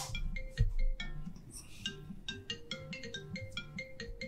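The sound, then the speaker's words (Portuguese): A phone ringtone plays a repeating pattern of bright, chiming electronic tones in quick rhythmic bursts, clear, with a low hum underneath and no one speaking. “O que está fazendo esse telefone ligado?”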